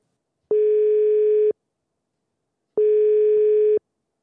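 A telephone line tone sounds while a call is placed to the chairman of the Film Censorship Board (Lembaga Sensor Film): two steady, one-second beeps separated by a pause of silence, clear and fairly loud, with no one speaking.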